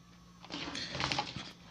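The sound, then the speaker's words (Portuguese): A keyboard tumbles and clatters, a burst of rattling plastic knocks lasting about a second, with a few sharper bangs in the middle and no voices. “Caralho, o teclado caindo”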